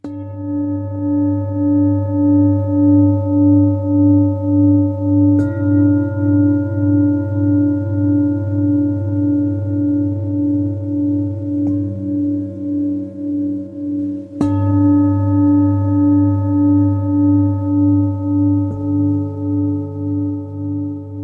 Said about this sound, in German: Ich habe es mitgebracht, weil mich diese Klangschale